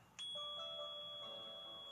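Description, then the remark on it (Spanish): A small hand bell rings once with a bright metallic strike, its clear tone sustaining and slowly fading over a couple of seconds, fairly loud with no voices. “Y eso sí, hacemos sonar la tradicional campanilla”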